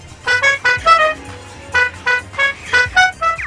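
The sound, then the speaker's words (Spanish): A lyrebird imitates a car horn, giving a series of about eight short, bright honking bursts in an uneven rhythm, loud, with a low rumble underneath. “también imita el sonido de un claxon muy particular”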